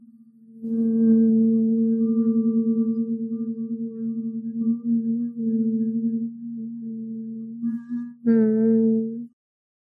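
After an inhale, voices hum a long, steady low note for about seven seconds, fairly loud, then pause briefly and hum a second, shorter note.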